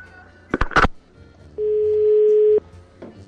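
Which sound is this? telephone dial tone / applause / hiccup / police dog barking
telephone dial tone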